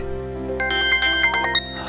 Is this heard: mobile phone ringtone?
yes